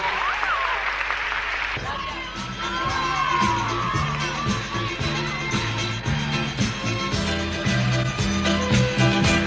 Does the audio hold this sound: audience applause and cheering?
yes